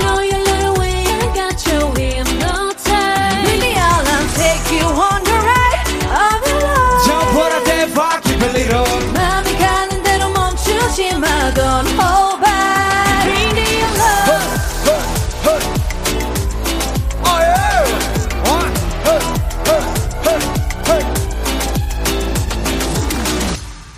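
A loud, full-band pop song performed live, with a sung lead vocal over steady beats and bass, playing continuously at high energy for the whole stretch before cutting off abruptly at the end.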